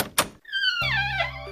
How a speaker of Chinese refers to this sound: 依依打开门，门外站着一位老爷爷